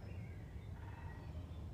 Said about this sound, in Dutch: En het gezang van de vogels binnen te laten komen. Al jouw cellen te laten vibreren met dit prachtige geluid van de vogels.